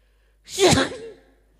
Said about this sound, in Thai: ว่าอยากจามเลยเนี่ย